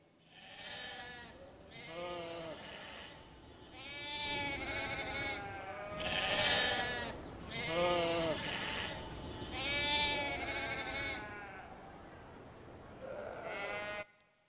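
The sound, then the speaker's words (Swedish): Several sheep bleat repeatedly in a loud, overlapping chorus of wavering, nasal cries, continuing without pause for the whole stretch, with no talking. “Det är liksom, visst, det finns någon slags liten munterhet kanske, men det är ett bräkande och en blandning av bä och nä när de pratar med varandra.”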